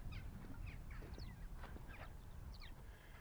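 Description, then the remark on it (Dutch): Several short, buzzy Eurasian skylark calls ring out overhead at scattered intervals as the birds pass on migration from north to south, heard over a steady low rumble of wind or background noise. “Je hoort de koudjes, maar je hoort de veldleeuwerik.”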